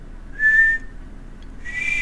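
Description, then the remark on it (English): A person whistles two short, clear high notes separated by a brief pause, imitating an arcing whistle; the tones are fairly steady and moderately loud, with no talking. “you hear this sound in the sky, this like whistle that arcs over your head.”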